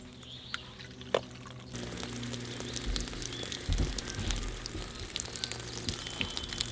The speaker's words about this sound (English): Okay, the way this system is supposed to work, it's connected. You turn the gas on, and then you just come over here, oh, turn the shower on.